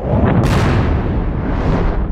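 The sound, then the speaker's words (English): An underwater craft, the Zephyr, launching through a launch tube and shooting out of a cavern wall at high velocity: a loud, continuous roaring rush of deep rumble, with a sharp hissing surge bursting in early and holding steady to the end. No voices. “The Zephyr shot out of the cavern wall at high velocity,”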